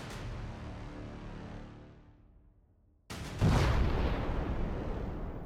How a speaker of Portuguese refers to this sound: chacolejou ao teu redor e você escuta logo em seguida uma explosão.